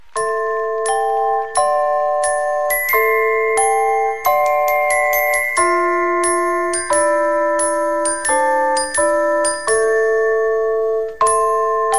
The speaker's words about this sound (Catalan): Tothom, tothom, quan sent aquestes campanes, quan sent aquestes quatre notes, la pell se posa de gallina, mm. cauen les primeres llàgrimes i realment doncs, és emocionant.